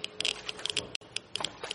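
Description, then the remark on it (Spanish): Rapid, irregular clicking from a Geiger counter, its rate increasing as it is carried deeper into a flooded basement, sharp crackling ticks coming in quick, uneven bursts, moderately loud, with no voices. “El contador Geiger aumentaba el ritmo al adentrarse en el vientre del animal.”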